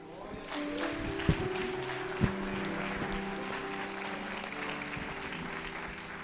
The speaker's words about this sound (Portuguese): Aplaude a Deus por isso.